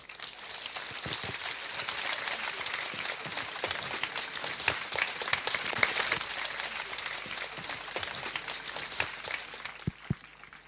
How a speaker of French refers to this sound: Je vous demande de l'accueillir, pardon, avec euh, tous vos applaudissements.